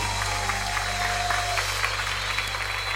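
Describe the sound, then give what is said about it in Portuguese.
An audience claps together in a steady, sustained burst of applause to the Lord lasting several seconds, with a low electrical hum running beneath it. “Forte esse aplauso ao Senhor.”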